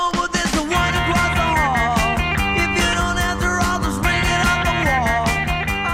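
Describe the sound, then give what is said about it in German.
The original recording of a song by a US band, later covered, plays loud and steady as full-band power pop, driven by a bright, catchy guitar hook over pounding drums and bass, with no talking. “Und im Original klingt die Nummer so.”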